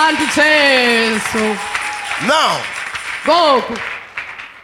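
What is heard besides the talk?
audience clapping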